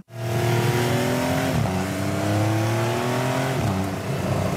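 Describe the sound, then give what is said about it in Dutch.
A Porsche 911 cabriolet sports car engine revs hard, its pitch climbing steadily then dropping sharply at two gear shifts, loud and continuous with no voices. “En in de cabrio hoor je altijd beter uh, motorgeluid.”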